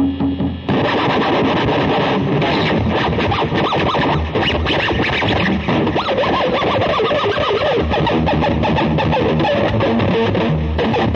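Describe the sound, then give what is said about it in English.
A heavily distorted EVH electric guitar with a Floyd Rose whammy bar, out of tune and with a very hot pickup, plays a dense, continuous run of chords and notes for about ten seconds, loud and saturated, with no talking over it. “It's an EVH. It's an EVH Floyd.”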